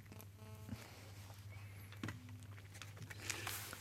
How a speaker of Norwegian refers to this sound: Uh, ehm, du hørte den knirkinga. Den, den, skjer vanligvis ikke